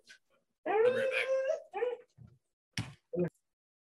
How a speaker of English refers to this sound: give me one second. I'm watching my brother's dog and she's like whining.